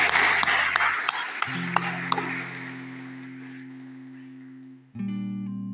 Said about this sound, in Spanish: Gracias, chicos. Démosle un aplauso a estos jóvenes, por favor.